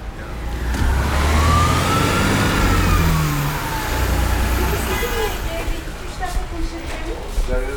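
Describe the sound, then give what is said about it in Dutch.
Busy intercity bus terminal in Istanbul, with buses leaving for and arriving from the Black Sea region: steady engine rumble and idling vehicles, overlapping crowd chatter throughout, and a siren-like wail sweeping past in the first few seconds. “Hiervandaan gaan bussen naar het Zwarte Zeegebied toe... en dan komen bussen vanuit het Zwarte Zeegebied hier naartoe.”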